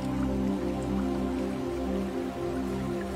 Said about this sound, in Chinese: 想象有一股美妙的流水正在从你的身边经过